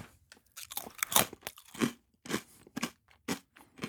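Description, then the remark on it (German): Loud crunchy chewing of a snack with the mouth closed, a steady series of about ten sharp crackling bites and chews with brief pauses between, no talking. “Ich rede normal und, und esse einen dabei.”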